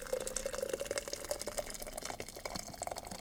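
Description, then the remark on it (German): Hot water, boiled and then cooled slightly, is poured steadily into a cup over Matcha Mango Citrus tea, a continuous trickling and splashing with a faint rising tone as the vessel fills. “Und jetzt möchte ich mit dir den Matcha Mango Citrus aufgießen. Das Wasser hat gekocht, bisschen abgekühlt.”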